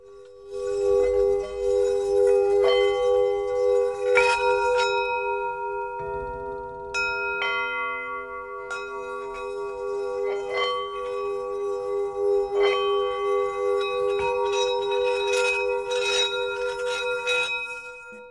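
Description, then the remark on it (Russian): Small singing bowls, shaped like little pots, struck again and again, each strike blooming into a long, shimmering hum that overlaps the last, a steady low drone with bright metallic overtones, with no one talking. “только скажу, что чаши такие небольшие, на, на, на горшочки похожи. А есть Э, гигантские.”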